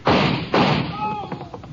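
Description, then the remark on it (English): Two loud, booming gunshots fired about half a second apart, each with a rumbling tail that fades out, followed by quieter scattered noises. “You hit him, but he's up. He's running for the river.”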